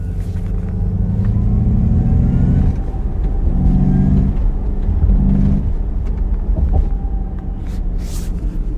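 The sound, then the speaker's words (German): A synthetic engine hum from an electric car's artificial sound generator, coming from the rear of the car, a steady low drone with tonal layers that swell and shift in pitch, fairly loud over a rumbling background, no talking. “Aber dieser Soundgenerator war wirklich der wildeste, den ich gehört habe. Das klang so mhm. künstlich es ist leider ganz, ganz schwer gewesen, den Sound einzufangen.”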